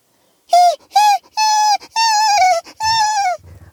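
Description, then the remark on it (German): A dog on television yaps aggressively at another dog while baring its teeth, five loud, high-pitched barks in a rapid, uneven series, with no one talking. “In dem Moment sah man im Fernseher, wie ein Hund einen anderen Hund anbellte und ankläffte und dabei die Zähne zeigte.”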